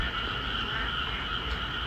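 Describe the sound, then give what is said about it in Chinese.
A dense, unbroken chorus of frogs and toads croaking, mixed with a steady, high-pitched buzz of cicadas, loud and continuous throughout with no voices, recorded from a window of a high-floor flat in Zhengzhou on the night of July 19 just after heavy rain, the sound coming from the distant ground. “当时的声音应该是知了混合着青蛙的声音。”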